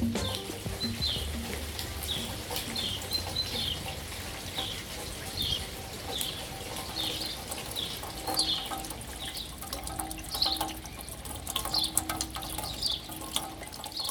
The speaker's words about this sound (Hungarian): Az első kívánság Szentesről érkezett. Döme azt írta, kedvenc zaja, ahogy az eső visszacsapódik a földről.